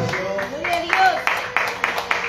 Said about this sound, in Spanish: A su nombre, palmas a Jesucristo, hermano.